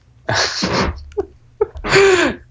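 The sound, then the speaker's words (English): Someone imitates a sneeze with their voice: a loud, breathy windup, a couple of small clicks, then a forceful, noisy burst. No words are spoken. “It was a great sneeze.”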